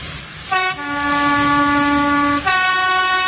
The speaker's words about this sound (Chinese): 小火车拉响小汽笛，提醒大家说：“火车马上就要开啦，乘客们请赶快上车吧。”